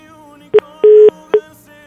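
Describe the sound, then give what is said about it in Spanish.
A telephone line tone from a failed call amid trouble with the communication lines: three steady, pitched beeps in a short, long, short pattern, heard clearly with no one speaking. “Ay, algo está pasando con las líneas de comunicación.”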